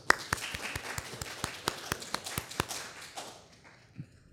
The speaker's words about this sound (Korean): 그래서 우리 옆에 계신 여자분들 너무 우리 수고 많이 하시는데 우리 박수 한번 해주시죠.